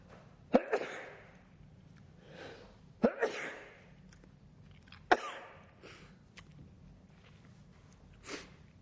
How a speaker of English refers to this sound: I'm going to sneeze again here.